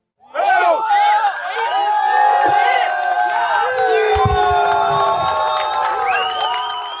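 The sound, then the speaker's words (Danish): Residents of Riga, Latvia, cheer and whoop loudly and continuously, many voices rising and falling together, as an 80-metre concrete monument is dug out at its base and topples sideways with a splash into a water basin in Victory Park, with a couple of deep low thuds and a brief rumble partway through. “Det her det er lyden af indbyggere i Letlands hovedstad Riga, der jubler, mens et 80 meter højt betonmonument bliver gravet op ved soklen og med et plask vælter sidelands ned i et vandbassin i Rigas centrale park, Victory Park.”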